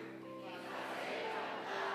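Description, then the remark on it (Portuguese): A church audience applauds at the preacher's call during a service, in a steady, dense wash of clapping that swells after a moment and holds for about two seconds, with crowd voices and a faint sustained tone mixed in at the start. “Vai lá, aplaude aí, preciso correr aqui.”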